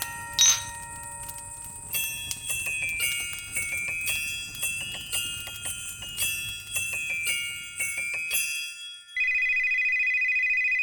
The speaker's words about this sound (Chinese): 突然，圣诞老公公的家里的电话响了起来。从那一刻开始，圣诞老公公就没有停止接电话了。